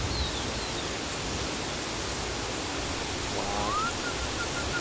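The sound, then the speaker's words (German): A bird calls faintly outdoors in sunshine, a brief high chirp early on and a short rising whistle near the end, both half-buried under a steady, loud rush of water-like noise. “Das gehört aber noch ein Vogel.”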